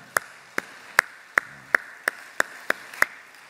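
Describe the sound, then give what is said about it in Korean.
A church audience claps in steady unison to give glory to God, about nine sharp, evenly spaced claps at a brisk rhythm, moderately loud, with no voices over it. “우리 하나님께 한번 영광의 박수를 올려드리겠습니다.”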